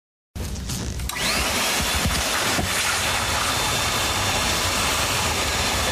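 A vacuum cleaner switches on as someone vacuums at home, quickly spinning up to a loud, steady roar with a rising whine, then droning on evenly with no one talking.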